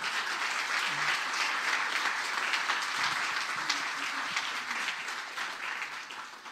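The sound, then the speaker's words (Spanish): A crowd applauds steadily for several seconds, a dense, continuous wash of many hands clapping at once, holding an even loudness with no talking over it. “Amén. Aleluya, dáselo fuerte, dáselo fuerte.”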